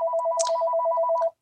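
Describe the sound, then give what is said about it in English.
The speaker's phone rings unanswered with a rapid, warbling electronic trill, steady and fairly loud for over a second before cutting off abruptly, with a couple of faint clicks in the background. “Um, anyway, I'm just going to let it ring.”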